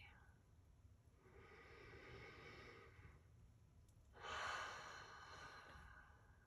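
Deep, slow breathing: a long, airy inhale followed by a louder, rushing breath, each drawn out over a couple of seconds with no talking.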